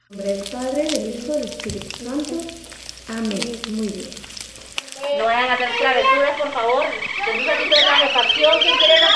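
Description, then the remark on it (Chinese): Food sizzles and crackles in a pan with a steady hiss, a sound from Taiwan's foreign aid work, while several people talk over it; partway through, the scene cuts to a busier, denser stretch of chatter and background noise. “哎，一开始又是我说那个那个是在是在煎菜，是不是在煎蛋还是什么的那个声音？”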